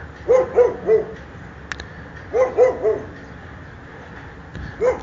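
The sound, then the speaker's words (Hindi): Dogs bark at night, around two o'clock, in short clusters of three, pausing between bursts, with a lone bark near the end, all set against a steady windy hiss and no voices. “रात के तकरीबन दो बज गए थे और सन्नाटा चारों तरफ पसर गया था हवा की आवाज़ पूरे वातावरण में गूंज रही थी और कुत्ते भी भौंक ही रहे थे”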